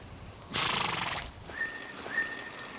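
A horse gives a short, breathy neigh, followed by two faint, thin high-pitched tones trailing off. No one speaks.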